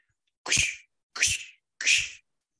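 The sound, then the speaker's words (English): Three crunching footsteps in snow, evenly spaced, each a short gritty burst with a soft low thud, against otherwise total silence. “So picture a dark forest on a cold winter's night, all silent except for the crunch of snow under your feet.”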